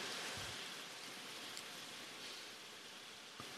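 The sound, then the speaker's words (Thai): Steady rain pours down in a dense, continuous hiss, with a few louder drops tapping. It keeps up evenly throughout, and no voices are heard. “พูดอย่างอื่นมาตั้งนานฝนไม่หยุด”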